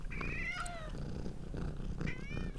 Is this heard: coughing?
no